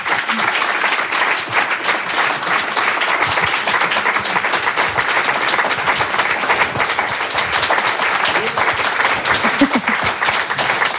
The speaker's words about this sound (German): Sowas nennt man langanhaltenden Applaus. verdienten, langanhaltenden Applaus.